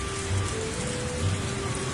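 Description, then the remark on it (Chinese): Steady rain of bean-sized drops falls on the ground after thunder, splashing and then rippling in puddles of standing water, a dense, even hiss of countless drops with soft low rumbling swells underneath, sustained throughout with no voices. “刚开始在地上砸出一个又一个小水花，后来地上有了积水，又砸出一个又一个小小的涟漪。”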